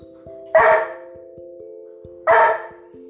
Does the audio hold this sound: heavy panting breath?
no